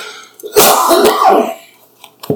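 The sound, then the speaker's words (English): A loud sneeze bursts out in one breathy, noisy blast lasting about a second, followed a moment later by a short, softer sound. No one speaks. “Bless you. My bad”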